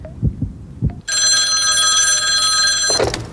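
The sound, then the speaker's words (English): A loud telephone bell rings in one long continuous burst of about two seconds, shrill and metallic, after a few soft, low thumps; nobody speaks. “All right, let's go to the phones and see who's out there.”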